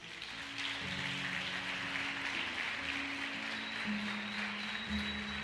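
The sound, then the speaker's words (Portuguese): A crowd claps steadily and densely for several seconds to applaud the Lord, a continuous wash of applause, with low sustained keyboard or organ chords holding underneath. No one speaks. “Gente, você pode aplaudir o Senhor por isso?”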